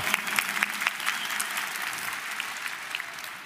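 An audience claps steadily, a dense crackle of many hands with a few sharper claps standing out early on, holding at a moderate level for a few seconds with no talking.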